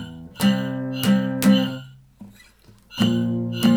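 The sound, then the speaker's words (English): An acoustic guitar is strummed, a few ringing chords in an uneven rhythm, then a short pause before one more strum. No one speaks. “Pass me, pass me your guitar.”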